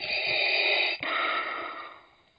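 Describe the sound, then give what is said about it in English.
A voice imitates Vader's heavy respirator breathing: a harsh, hissing inhale followed by a long raspy exhale, loud, with no talking. “Oh well, I guess I just get heavy breathing tonight.”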